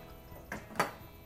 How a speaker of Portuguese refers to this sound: Não sei se dá pra ouvir. Eu mastigando uns milhos aqui.